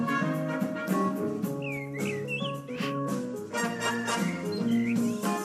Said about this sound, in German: Ja, das sind auch Vögel, die da ein bisschen mitpfeifen, mitgepfiffen haben bei der Big Band Veranstaltung am oberen Schloss